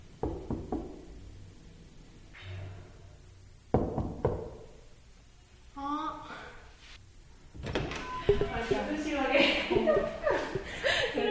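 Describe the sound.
A few light, sharp knocks, made carefully on the front door of a family home, come in short bursts near the start, followed by people's voices talking and chuckling.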